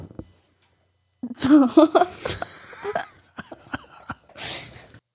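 A chair creaks loudly with a drawn-out, wavering squeak, followed by scattered clicks and shifting rustles as the seat settles, with no talking.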